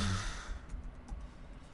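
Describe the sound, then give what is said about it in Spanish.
A short, low-voiced moan fades into a soft, breathy exhale, like a quiet sigh, as a moaning breath exercise is demonstrated. The single vocal sound is faint, with no talking. “Entonces lo que hacemos es la, respiración de gemido. Gemido es como cuando te quejas, ¿no?”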